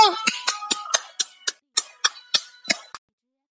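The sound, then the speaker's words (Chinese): Applause welcoming a mentor at a storytelling event, as a sparse run of about a dozen crisp, sharp claps at a fairly steady pace, thinning out and stopping after about three seconds, with no voices. “下面有请故事大会导师王老师为我们解析这段小故事，掌声欢迎！”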